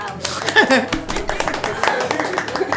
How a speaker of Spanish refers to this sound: Un aplauso, qué hermosos.